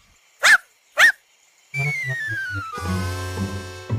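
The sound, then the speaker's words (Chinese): A dog barks twice, two short sharp yips about half a second apart, then a bright tonal musical jingle with a descending slide and steady bouncing notes takes over. “小狗会发出什么声音？”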